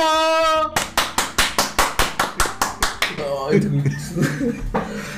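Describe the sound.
After a brief sustained tone, about a dozen loud, evenly spaced claps beat out a steady rhythm. They then give way to a jumble of excited voices and cheering.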